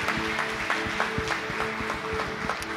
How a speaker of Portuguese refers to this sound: Você pode dar uma forte salva de palmas ao Senhor? Pode aplaudir ao Senhor?